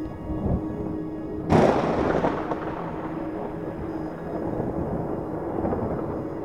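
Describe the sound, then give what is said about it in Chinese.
Low, muffled thunder from far away from a forest breaks in suddenly and then rolls on in a long, deep rumble that slowly fades, with no voices. “距离森林很遥远的地方，传来一阵又一阵很低沉而且闷闷的雷声。”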